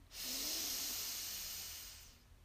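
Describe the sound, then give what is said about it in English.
A single long, steady inhale drawn through the nose, expanding the belly during a guided breathing exercise, a soft airy hiss that swells quickly, holds for about two seconds, then fades. No one speaks. “So deep breath in, expand your belly, and now release with a loud sigh.”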